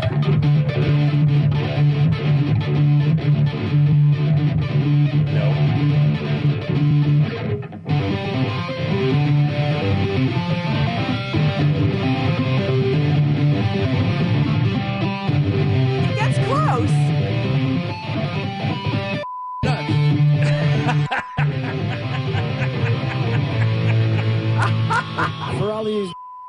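A loud, heavily distorted electric guitar plays a busy, fast-moving song intro, with dense ringing notes and a few abrupt short breaks before it charges on.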